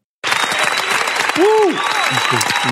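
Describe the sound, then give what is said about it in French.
Steady, dense applause starts abruptly and continues at an even loudness, with a voice briefly rising over the clapping partway through. “J'applaudis.”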